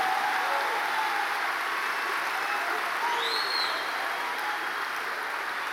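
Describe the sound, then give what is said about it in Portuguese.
An audience at a church in Londrina applauds loudly, a dense, steady roar of clapping from many hands that fills the whole stretch without letting up, with a few faint voices or whistles rising above it. “Se você vai aplaudir, aplauda bem forte mesmo, aplauda.”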